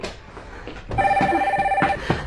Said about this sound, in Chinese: 电话又响了，电话又响了。